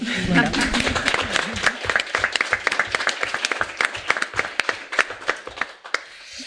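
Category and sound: crowd, audience applauding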